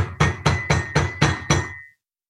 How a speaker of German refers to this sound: Ähm, alle äh, schlaft ihr, werdet ihr auf einmal geweckt durch ein Klopfen.